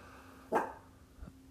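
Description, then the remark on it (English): A dog lets out one sharp, loud bark, followed a moment later by a much fainter, lower woof, with a low steady hum in the background and no one talking. “My dog's freaking right out.”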